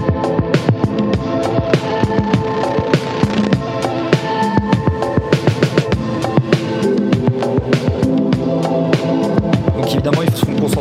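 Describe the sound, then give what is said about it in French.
A music loop run through Native Instruments' VHS Degradation Suite lo-fi effect: dense chords and a steady, punchy beat with a constant hiss layered underneath, loud throughout, with no voices. “Tiens, écoutez un peu le VHS Degradation Suite. Je vous le fais écouter là tout de suite.”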